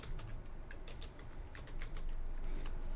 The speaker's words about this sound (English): Let me type in Earth Chronicles on a search engine.